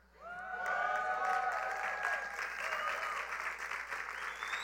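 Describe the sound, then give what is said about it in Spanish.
An audience bursts into sustained applause for itself, loud and steady for several seconds, with scattered whoops and crowd voices rising above the clapping. “Se están aplaudiendo ustedes mismos.”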